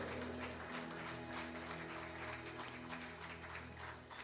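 An audience applauds steadily for several seconds, a dense wash of many hands clapping at once, with a low sustained hum underneath and no one speaking.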